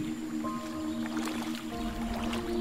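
Feet slosh and splash through shallow sewer water after someone jumps down through a manhole, in an echoing space, a steady wet churning with a low hum beneath, growing slightly louder toward the end. No one speaks.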